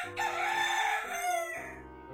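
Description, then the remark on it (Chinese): A rooster lets out one long, loud cock-a-doodle-doo, a bright harmonic crow that holds steady for over a second and then drops off at the end, with no voices. “虽然我们是天鹅的远方亲戚，呃，但是我们擅长的是养育小鸡和提醒大家日出的时间啊。”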